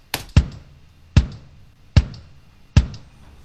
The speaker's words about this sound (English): which is just the kick for the first part, and then the hi hats come in. I think. Yeah. just kind of swung. And then the second half, the snare comes in as well. Oh, no, it doesn't. I'm lying. So that's the actual drum kit.